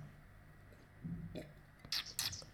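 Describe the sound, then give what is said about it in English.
A sip of sour beer: soft wet mouth noises, then two quick, airy, hissing slurps in succession as the beer is drawn in, fairly quiet overall with no talking. “All right, I'm going to um, bring you then to sour beer because I am actually partaking of it right now. Listen.”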